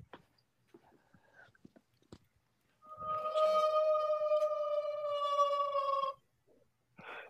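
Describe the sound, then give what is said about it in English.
A single lone wolf howl sound effect played from a soundboard rings out for about three seconds, a loud, sustained, slightly falling tone standing alone after a few soft scattered clicks and rustles. “Do you have the the sounds ready? The lone wolf sound.”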